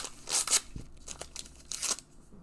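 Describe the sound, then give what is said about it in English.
A recyclable paper trading card pack being torn open: two short, crisp ripping bursts with a brief rustling pause between them, and no voices. “I'll show you what you get in a pack as well”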